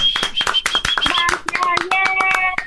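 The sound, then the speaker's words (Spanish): Hands clap in a quick, uneven flurry of sharp slaps, steady for a couple of seconds, with faint tonal ringing sounds mixed underneath. “Hay mujeres que captan eso, que son inteligentes, tú eres una de ellas, te mando un abrazo y te doy un aplauso.”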